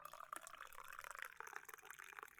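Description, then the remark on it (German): Tea is poured steadily into a cup, a continuous soft gurgling splash with a rising, bubbly tone and small irregular spatters, fairly quiet and with no voices. “Ah, es wird noch eingegossen.”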